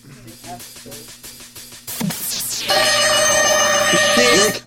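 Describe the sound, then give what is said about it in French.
A tinny, electronic-sounding rendition of the Mission Impossible theme is played as a question in a guess-the-tune game. A steady pulsing rhythm opens, followed by swooping notes and then loud, sustained, bright tones. “C'est Mission Impossible, le thème de Mission Impossible. C'est le thème de Mission Impossible, c'est la bonne réponse.”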